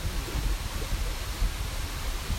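waterfall rushing water

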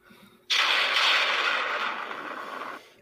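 thunder sound effect

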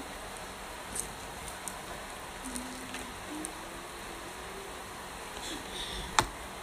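heavy rain falling outside

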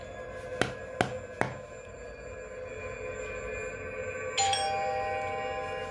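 knocking on a door

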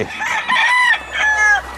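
chicken crowing and clucking

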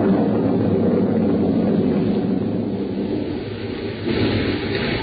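thunder rumbling

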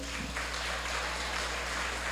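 audience applause

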